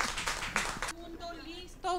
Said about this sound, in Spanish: Un aplauso.